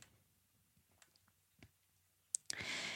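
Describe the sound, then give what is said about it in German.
A female dog lying next to the speaker chews and smacks on her chew bone, making faint, irregular wet clicks and squishes close by, followed by a couple of sharper clicks and a loud burst of rustling noise at the end. “Und falls ihr jetzt irgendwelche komischen Kau- und ähm, Schmatzgeräusche hört, dann ist das tatsächlich die kleine”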